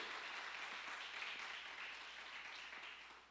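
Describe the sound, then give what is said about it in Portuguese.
An audience in a church breaks into sustained applause for God, a dense wash of many hands clapping steadily at a fairly quiet level before gradually tapering off toward the end. “Dá um aplauso a Ele aí.”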